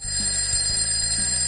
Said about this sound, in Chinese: 熟悉的闹钟声响起，明天哼哼猪一定不会迟到了。